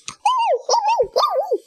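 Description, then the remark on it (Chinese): A human voice imitates the barking of Patch, a dutiful sheepdog setting off with a farm tractor: three drawn-out, wavering yelps in quick succession, fairly loud, with a rising and falling pitch and no other sounds around them. “弗瑞德叫上尽心尽责的牧羊犬一起出发。”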